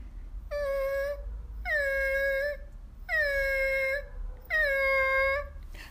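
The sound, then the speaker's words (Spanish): A kitten whimpers softly from inside a closet in four drawn-out, wavering cries, each about a second long and evenly spaced, with no voices around. “Cuando ella llegó al placar, escuchó un gemidito muy suave.”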